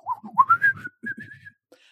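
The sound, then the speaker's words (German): A person whistles two quick, warbling phrases, rising and sliding like a bird's call, with a brief pause between them and a faint chirp at the end. “Und dann denke ich so, aber was ist denn das Wort für Fenster in Vogelsprache?”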